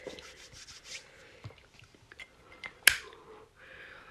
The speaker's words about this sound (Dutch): Jullie hebben net waarschijnlijk dit gehoord. Dat was mijn mooie Supreme Zippo die eh, bij Joko aanstak. Ik vuur daar nou een beetje bij.